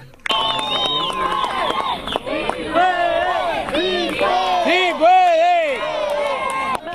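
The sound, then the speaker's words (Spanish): On the bank of the Rio Bravo at the migrant camp in Matamoros, Tamaulipas, Venezuelan migrants shout overlapping cries of encouragement to women and children swimming across, several voices calling out at once in rising, sustained yells over steady background noise. “A la orilla sus compatriotas venezolanos lanzaban gritos de apoyo.”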